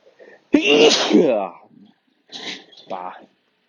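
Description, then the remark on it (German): A loud sneeze bursts out with a sharp onset and breathy, voiced tail, followed by a softer second sneeze-like exhale about a second and a half later. “So, in diesem Sinne, ich wünsche euch, ähm, ich muss gleich nochmal niesen.”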